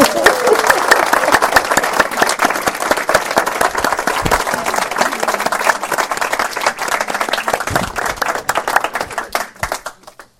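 A room full of people breaks into sustained applause, dense overlapping claps filling about ten seconds before tapering off at the end, with faint voices mixed into the crowd noise.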